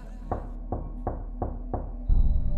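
Five steady, evenly spaced knocks on a bedroom door over a quiet background; after the last knock a low rumble and a thin high tone swell in.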